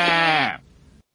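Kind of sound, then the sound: animal, sheep bleating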